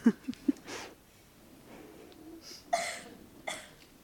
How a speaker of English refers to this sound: so I'd like to s- shift the gear and talk a little bit about eros and desire. I feel like I have to clear my throat to do that.